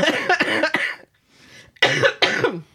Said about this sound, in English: Your cough was getting worse.